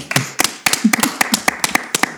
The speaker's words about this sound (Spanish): Perfecto, muchas gracias. Un aplauso.